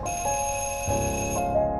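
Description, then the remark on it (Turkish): The doorbell of a second-floor apartment rings with steady, high electronic tones, a bright sustained chime whose pattern shifts slightly partway through, heard alone without voices. “Benim için kaygılanan teyze kızının uyaran sesini kovarak dokundum kapının ziline.”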